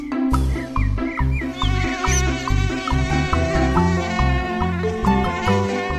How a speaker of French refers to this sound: Mais qu'est-ce que c'est Oh non, un moustique Je suis sûre qu'il m'a piqué.